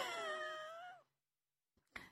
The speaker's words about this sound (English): fisher cats okay, well, the, now uh, just be careful when you go out and when you hear that screaming. Now that you know what the sound. Wow, of- that is a scary sound.